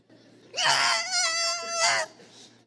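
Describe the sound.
A person imitates a little monkey's screaming with one long, loud, high-pitched wailing cry that holds steady for about a second and a half, then cuts off, heard on its own.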